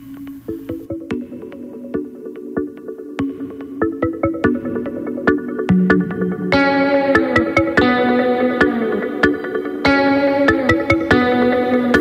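A rap track plays on its own: a steady, punchy beat under bright, heavily processed tones with echo, filling out and getting louder about halfway through.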